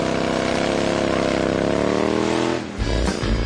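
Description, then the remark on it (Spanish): A motorcycle engine revs loudly, its pitch climbing steadily for a couple of seconds before dropping abruptly into a deeper, rumbling idle. “Si tienes una moto, con esta noticia rodarás cualquier cuesta, incluso la de enero.”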